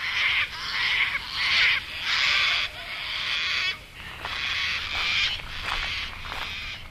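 Harsh, raspy sulphur-crested cockatoo screeches repeat in a rapid series of loud bursts, several white cockatoos with yellow crests calling over one another with no voices present.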